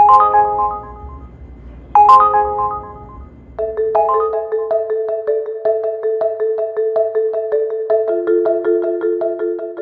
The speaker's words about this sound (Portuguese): O som que indica chamadas para corridas ficou menos frequente. O segmento de motoristas de aplicativos foi um dos muitos que viram o volume de trabalho diminuir por causa da pandemia.